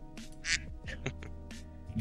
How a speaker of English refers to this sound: Yeah, Duck Quack, man.